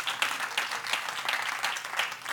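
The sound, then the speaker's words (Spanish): An audience applauds God together, a steady wash of many hands clapping at moderate loudness, with faint rhythmic peaks running through the sustained crackle. “Den un aplauso fuerte a nuestro gran Dios.”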